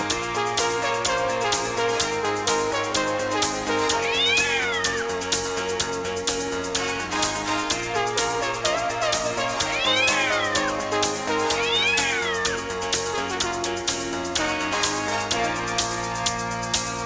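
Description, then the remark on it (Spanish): A cat's meow is woven into an upbeat, steady dance track, with several clear, drawn-out meows rising and falling over the busy beat at intervals. “a uno le molestará que yo le meta un gato a la, música de pronto.”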